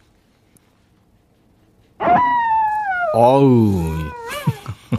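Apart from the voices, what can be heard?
wolf howling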